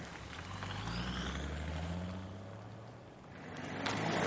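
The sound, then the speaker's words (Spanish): A police patrol car's engine rumbles steadily as it drives along a street toward a house, its low hum shifting in pitch and swelling slightly louder toward the end, with no voices. “En la calle, un coche patrulla avanza hacia la casa de Carrie.”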